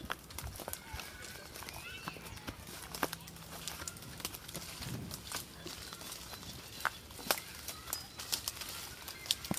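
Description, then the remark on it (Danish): Five boys tramp a path through pathless forest undergrowth, their footsteps crunching and snapping twigs in an irregular, overlapping rhythm, with faint bird calls in the background. “Nu kommer der fem raske drenge og tramper en sti igennem skovbunden.”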